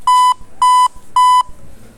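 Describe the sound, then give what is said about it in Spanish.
A metronome sounds three loud, evenly spaced electronic beeps, each a short steady mid-pitched tone with a bright buzzy edge, keeping a regular pulse with no talking. “Es el metrónomo.”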